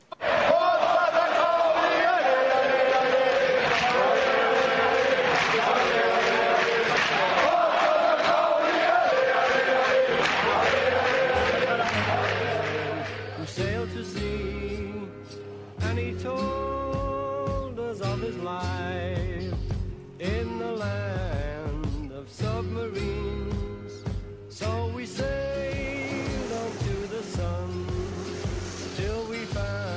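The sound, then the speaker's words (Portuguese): A loud mass of football fans chants a song in unison for about thirteen seconds, then the crowd stops and a studio recording of the same tune with bass and bright instruments takes over. “Vamos ouvir então, primeiro a torcida e logo em seguida a versão original.”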